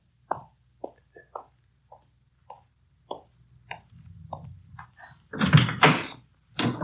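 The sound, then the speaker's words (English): A run of small mechanical clicks and taps as the handle of a car door on the other side is raised, then a louder clunk and rush as the door swings open, with a brief knock at the end. “Now, will you uh, raise that handle on the other side so I can get in?”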